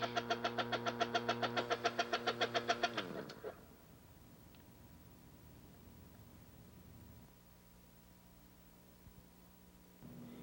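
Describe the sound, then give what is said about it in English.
A dental vacuum mixer pump runs with a loud, rapidly pulsing mechanical chug for about three seconds, then settles into a steadier, quieter motor hum that shifts pitch slightly a few times; a finger placed over the end of its hose activates the vacuum, raising the gauge reading from 10 to 30. “Placing my finger over the end of the hose, causes the vacuum to activate and we have a reading of 30 on the gauge.”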